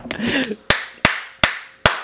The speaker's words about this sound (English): Motherfucker swears like having his mouth open is gonna make him clap louder.